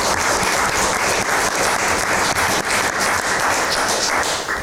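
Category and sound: crowd, audience applause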